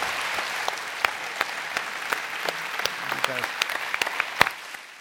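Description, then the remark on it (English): An audience in Boulder, Colorado applauds a panel steadily, a dense patter of many hands clapping at moderate loudness, with sharper individual claps standing out and a brief murmur of voices partway through before the clapping thins. “And how about one more round of applause for our very fine panel?”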